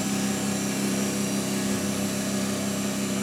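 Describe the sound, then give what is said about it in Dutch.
A laboratory anaerobic chamber, used for treating peat samples under oxygen-free conditions, runs with a steady, droning mechanical hum, a low tone with strong harmonics and a broad whirring hiss, constant in level throughout with no voices. “Kun je hem eens aanzetten? Ja, ik kan eventjes eh, laten horen hoe dat klinkt als hij aan bezig is.”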